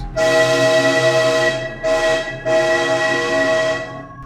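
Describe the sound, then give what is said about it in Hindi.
A loud train horn sounds in three blasts: a long one, a short one, then another long one, over a low rumble of a train on the move. “बस सिग्नल मिल गया तो चलिए शुरू करते हैं यात्रा”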